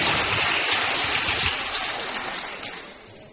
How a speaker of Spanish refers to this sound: Muy bien, un aplauso. Qué bueno.